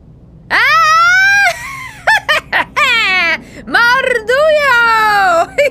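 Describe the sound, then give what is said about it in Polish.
A loud, piercing voiced shriek rings out from overhead, one long wail followed by a flurry of short squawks and two more drawn-out, wavering cries, like a screeching bird or creature. “albowiem nad ich głowami rozległ się wrzask.”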